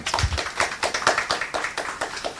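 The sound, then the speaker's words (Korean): A small audience at a talk event claps steadily to welcome a guest, the quick overlapping hand claps forming a brisk, even rhythm of applause that carries on for a couple of seconds without any voices. “여러분 이준호 대표님 모셨습니다. 박수 부탁드립니다.”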